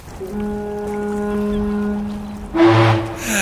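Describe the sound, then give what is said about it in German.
A deep ship's horn sounds in one long, steady blast, followed by a second, louder horn blast with a rougher tone over a broad wash of background noise, heard from a harbour mole in sunshine. “Hey, die Pötte grüßen uns.”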